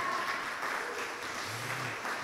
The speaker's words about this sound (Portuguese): Amém? Vamos aplaudir esta palavra linda, gente?